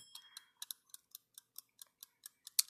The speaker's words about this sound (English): When I set this timer, it literally has a ticking sound, and it's pretty noticeable. I'm sure you can hear it.